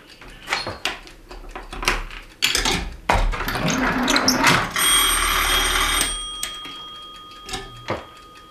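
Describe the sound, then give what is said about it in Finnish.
The bell of a 1971 manual telephone exchange at Kyrsyä rings steadily for about a second, surrounded by clattering mechanical clicks and knocks from the switchboard, fairly loud, with no talking. “Tässä puhelinkeskus vuodelta 1971 ei sen kauempaa kuitenkaan.”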